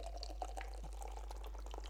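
Beer, hazy and fairly pale, pours steadily into a glass, a soft continuous splash with small gurgles and bubbly fizz, fairly quiet, with no talking.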